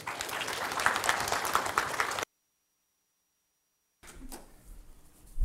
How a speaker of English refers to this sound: a round of applause as he joins us on stage?